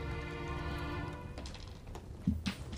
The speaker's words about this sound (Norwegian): Terning på gulvet, terning på gulvet! Er det en ny terning, da?